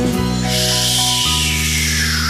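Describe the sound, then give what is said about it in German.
A steady, bright hiss of water spraying down like a shower as the rain cloud Rums rains drops onto the mountains, starting after a brief moment and continuing loudly over sustained musical tones. “Rums lässt es Tropfen regnen und sie duschen.”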